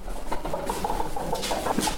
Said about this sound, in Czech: Česká slepice a teď posloucháme ty zvuky, ale oni stichli, jak jsme no. přišli. To je takové bublání zvláštní.